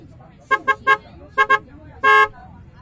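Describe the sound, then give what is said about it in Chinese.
A bus horn honks in bursts: three quick toots, then two more, then one longer blast, bright and loud over a low rumble of city traffic. “那又是什么？像一块大大的面包，会滴滴叫，跑得比小猫还快。”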